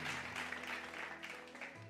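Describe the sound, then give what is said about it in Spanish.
A burst of canned applause played by a DJ: dense, steady clapping with a bright, noisy wash, holding at a fairly loud level throughout with no voices on top. “Vamos, DJ. los aplausos.”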